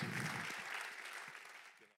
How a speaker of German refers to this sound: Lasst, heißt ihn mal mit mir zusammen. Herzlich willkommen mit einem warmen CLW-Applaus.